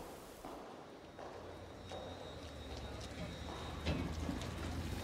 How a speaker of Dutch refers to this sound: We are in the in Compatio, right uh, at the entrance, uh, and uh, you hear the, the sound of water. That's just joyful. Er staat een fontein. Je hoort het water.